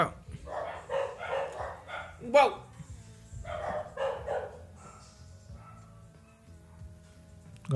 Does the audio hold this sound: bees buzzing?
no